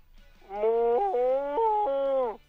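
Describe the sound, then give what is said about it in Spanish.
A caller by Río San Joaquín imitates a cow in heat with a long, loud, drawn-out moo lasting about two seconds, its pitch wavering and stepping between sections, with no talking alongside. “tu última vaca en celo, por favor.”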